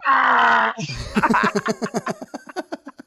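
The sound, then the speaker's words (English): A voice imitates oozing slime dripping down a wall: a sustained, strained groan, then a quick run of wet, gurgling pulses that gradually fade, fairly loud. “That is but the yeah, sound that jizz makes.”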